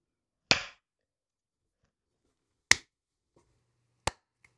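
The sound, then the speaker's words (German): Three isolated hand claps spaced unevenly over several seconds, hesitant, as when unsure whether to clap or not, each a sharp crack with long silent gaps between, the last one quieter, followed by a faint tap. “Das, wenn, man, wenn man sich nicht so sicher ist, ob man jetzt klatschen soll oder nicht.”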